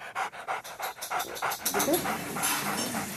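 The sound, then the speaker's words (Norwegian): A dog named Prins pants rapidly in Oslo, a steady run of quick breathy bursts, with a faint voice or whimper-like tone appearing briefly in the second half. “hunden Prins tok imot.”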